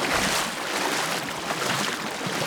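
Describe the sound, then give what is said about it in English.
A steady rush of churning water from a boat moving on Tempe Town Lake, holding a constant hiss with no voices for the whole stretch. “Let's get on a boat.”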